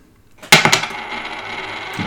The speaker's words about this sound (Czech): Ale vždycky dvoueurovka. Mně se zdále, že to házíš takovým tím cinknutým tak no, Tak no. ne, ne, ne, to spadla dvoueurovka, tentokrát nebudeme podvádět.